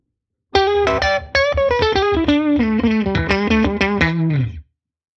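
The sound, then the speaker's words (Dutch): An electric guitar on pickup position 4, the in-between Knopfler setting, plays a quick, fluid melodic run of many plucked notes that drift downward and finish on a held, fading note, with no talking. “Heb je standje Nopfler al gehad? Ja, dit is... Uh, eh, standje ja. standje 4. Ja, je hoort hem gelijk al, hè?”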